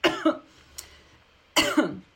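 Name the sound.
coughing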